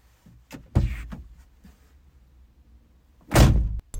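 A car door shuts as someone gets into a man's car, with a heavy, low thud, followed a few seconds later by a second loud slam, with faint rustling and small knocks between them.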